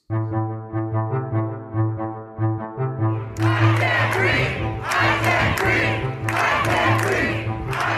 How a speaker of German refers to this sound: Tausende Menschen protestieren. Überall in den Vereinigten Staaten. Sie protestieren laut, aber sie protestieren meist friedlich.